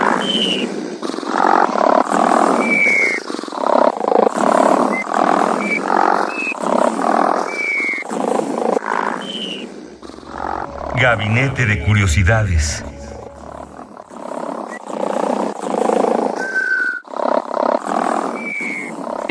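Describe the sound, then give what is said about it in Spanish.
Talking gives way to a few seconds of rough, rumbling snoring from a snoring machine in a sound reconstruction, low and gravelly with a croaking rasp, before the speech resumes. “esta máquina de ronquidos que me parece una maravilla divertidísima.”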